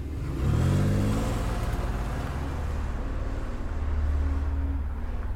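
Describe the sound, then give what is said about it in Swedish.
A car engine revs up and accelerates as the driver presses harder on the gas pedal, its low droning pitch rising then holding steady as the car speeds along the road, loud with no voices. “Mr Spicer spärrar upp ögonen och trycker i all spänning hårdare på gaspedalen.”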